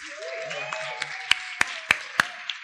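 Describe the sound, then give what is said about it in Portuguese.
A short burst of hand clapping for everyone, about half a dozen sharp claps in a steady rhythm that grows louder midway, over a faint murmur of background voices. “Palmas para todo mundo, né? Mais uma vez.”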